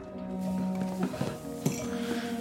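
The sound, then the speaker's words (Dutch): Bright glassy clinks ring out a few times over a steady hum, a utensil tapping a drinking glass to call a hall to attention for a speech, with sustained tonal ringing between the taps. “naar beneden kan lopen, de trap af en op je glas kunt tikken, de zaal triomfantelijk mag toespreken om te vertellen dat jij deze zware klus hebt geklaard.”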